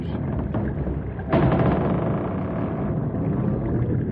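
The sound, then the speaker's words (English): A wooden trestle groans and strains under the force of rushing floodwater pressing on its center piers, a loud, steady roar that surges suddenly partway through, with faint creaking tones woven into the churning water. “listen to that trestle strain. Pressure is being applied to the center piers.”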